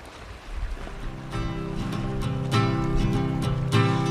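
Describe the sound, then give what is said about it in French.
Wind buffets the microphone in a steady low rumble that grows stronger after the first half second, mixed with a droning, engine-like hum and occasional soft thumps, while the recordist shields the microphone's windscreen with their body. “Je sais pas si on va entendre le vent. Normalement, oui.”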